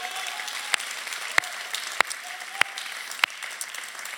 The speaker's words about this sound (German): Hey, wie wär's, wenn wir uns nochmal gegenseitig einen Applaus geben, oder? Hey, so cool.